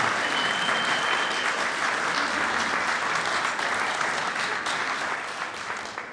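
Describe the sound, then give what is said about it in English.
A church audience applauds its women with steady, dense clapping that fills the whole stretch, holding at an even level before tapering off slightly toward the end, with no voices over it. “But I am thankful for them, so let's give them, a, let's give them a, an applause.”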